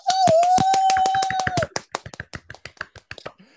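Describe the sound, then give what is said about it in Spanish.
A small group applauds with quick, crisp claps. A sustained high whistle or cheer rings over the first half, then the clapping thins into scattered, uneven claps before stopping. “¡Un aplauso!”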